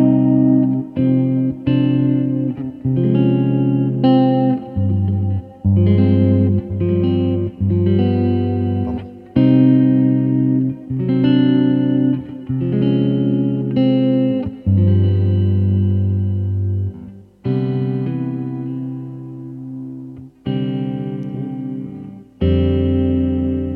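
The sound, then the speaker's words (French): An electric guitar plays a chord progression through effects, each full, sustained chord ringing for a second or two before the next, in a steady, loud sequence with no talking. “Par exemple, je vous, je vous soumets ça parce que je trouve vachement intéressant cet enchaînement.”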